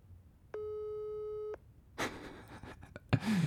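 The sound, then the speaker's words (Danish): A single one-second telephone ringback tone plays over a speakerphone as a phone call is placed, steady and fairly loud, followed by handling noise and rustling with a couple of sharp knocks. “Den ringer.”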